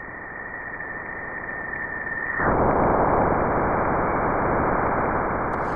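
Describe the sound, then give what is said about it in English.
Recording made on board NASA's Juno spacecraft as it crosses the bow shock into Jupiter's magnetic field: a steady, thin whistling tone over soft hiss suddenly gives way to a louder, roaring rush of static that continues to the end, with no voices. “let's start 542 million miles away, and this is the sound recorded on board NASA's Juno spacecraft as it enters Jupiter's magnetic field.”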